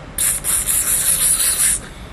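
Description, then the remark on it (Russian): A voice makes a steady, sharp 'ssss' hiss imitating the urge to urinate, like a stream of urine, fairly loud, lasting about a second and a half with slight pulsing and no talking. “Значит, идете дальше, вот, и вдруг ваше желание усиливается, оно начинает приближаться к намерению. Вот, и уже звучит так.”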